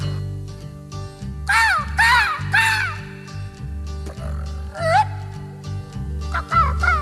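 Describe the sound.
A human voice imitates seagull cries at the start of the first take of a studio recording in Memphis: a handful of loud, swooping squawks in short bursts, heard over a band playing a steady, rhythmic bass-heavy groove.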